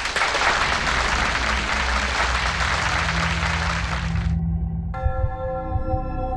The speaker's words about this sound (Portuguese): A decisão foi aplaudida por quem estava no tribunal.